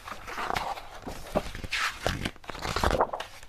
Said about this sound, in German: blättert in einem Buch zur ruhmreichen Geschichte der benachbarten Kathedrale.